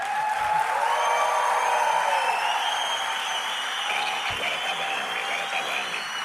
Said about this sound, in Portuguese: Eu acho que as palmas foram muito fracas para um veterano, já são três prémios.